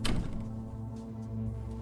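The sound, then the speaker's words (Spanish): An apartment door shuts with a single solid thud right at the start as someone re-enters the apartment, followed by a steady low mechanical hum that carries on underneath. No one speaks. “Así que Jeffries vuelve a entrar en el apartamento, cerrando la puerta detrás de él.”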